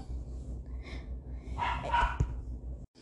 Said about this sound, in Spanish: Ah, bueno, mi perro, lo siento.